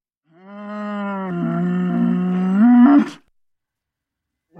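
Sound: bull bellowing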